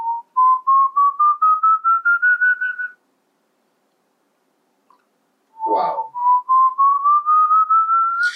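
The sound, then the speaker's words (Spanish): A person whistles a slowly rising series of pulsed notes, pauses in silence, then repeats the climbing whistle after a brief breathy burst, imitating the eerie whistle of the Silbón. Fairly loud, no talking. “¿Cómo hace el silbón?”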